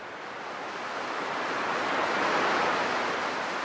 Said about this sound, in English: Picture an ocean wave. A big white cap.